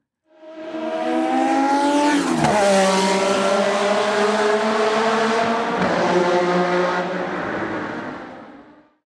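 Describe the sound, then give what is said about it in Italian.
A 1985 Ferrari turbo Formula 1 car engine roars loudly and steadily with rich harmonic whine, dipping briefly as it shifts gear, then sustaining its high-revving howl before fading out. No one speaks over it. “suoni di Formula 1 che abbiamo recuperato su YouTube e cominciamo con una Ferrari Turbo dell'85”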